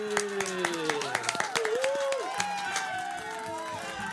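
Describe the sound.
A studio audience claps in a dense, irregular burst of sharp hand claps lasting several seconds, with voices talking and calling out over the applause.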